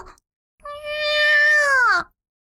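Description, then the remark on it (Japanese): A single drawn-out cat meow, clear, holding steady before sliding downward at the end, with silence before and after; the cat is inside a restaurant. “っていうか、飲食店に猫”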